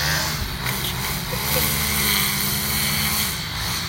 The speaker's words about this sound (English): if I would have slept until noon, which I am sometimes known to do because I'm a night owl, this is what I would have heard as my alarm clock. The weed whacker.